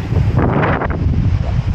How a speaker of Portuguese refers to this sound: Olha o vento, hein? Desculpa pelo vento.